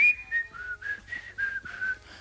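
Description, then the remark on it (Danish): A man wearing a face mask whistles a short, tuneful run of about seven notes, clear with no talking, about 5 meters away, imitating someone else's whistling. “Og bare tænker, hvem fanden står og fløjter? Det der er meget godt fløjtet med mundbind på.”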